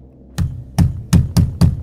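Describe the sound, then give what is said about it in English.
Five solid knocks on a wooden chamber door at night, fairly loud, with a short pause after the first before the rest come quicker and more insistent. No voices. “On the night of September 24th, I heard a knock at my chamber door.”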